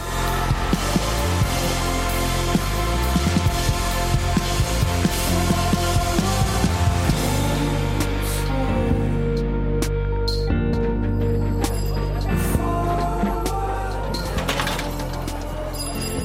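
A full Dutch band recording plays loudly and continuously, with driving bass, layered guitars or synths and a steady beat filling the whole stretch, with no talking over it.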